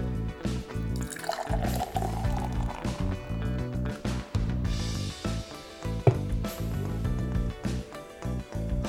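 Ichiban Shibori beer pours steadily from a can into a glass for several seconds, a continuous gurgling splash with a little fizz, and no one speaking over it.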